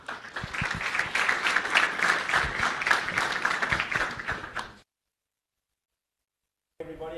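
An audience at the Actuarial Society's annual investment seminar applauds the Deputy Chairman before his official welcome, steadily for about five seconds, dense overlapping claps at a fairly loud, even level, then it cuts to silence before a man's voice begins speaking.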